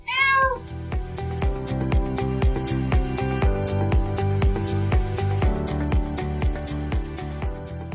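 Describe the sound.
A voice imitates a cat's meow in one short, rising-and-falling cry at the very start. Rhythmic music with a steady beat follows and fills the rest.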